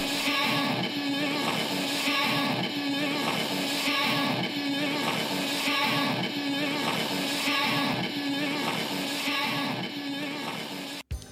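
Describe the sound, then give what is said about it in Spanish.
A dense, noisy fragment of music from the lock groove of a vinyl album loops over and over, loud and unbroken, with the same short cycle repeating endlessly until it cuts off abruptly at the end. “En el caso del álbum de …, el Lock Group suena así.”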